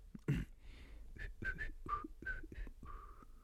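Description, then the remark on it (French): Someone whistles a short tune: a string of brief, breathy notes, starting and stopping unevenly, ending on one longer held tone. Nobody talks. “Tiens, j'arrive à siffloter.”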